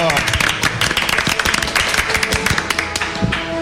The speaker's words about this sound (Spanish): Ya oficialmente son los Canal Ramagol 2014. Venga, un aplauso para empezarlo.